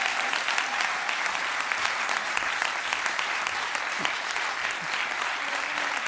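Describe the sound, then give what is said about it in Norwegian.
Steady, dense applause from an audience clapping in Espen Hana and Janne Stigen Drangsholt, a continuous wash of many hands clapping at an even loudness for several seconds with no voices standing out. “Vi prøver å klappe inn Espen Hana og Janne Stigen Drangsholt.”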